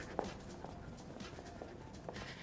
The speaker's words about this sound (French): Petit pas sur place pour bien échauffer les fessiers. Piétiner sur place.